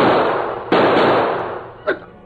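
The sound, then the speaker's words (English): Two loud gunshots ring out in quick succession, each with a long echoing decay, followed by a fainter, shorter pop near the end; trick shots in a shooting contest between Tombstone and the Lone Ranger as the sun sinks. No voices are heard. “Tombstone tried every trick shot he knew, but the Lone Ranger matched every one until finally.”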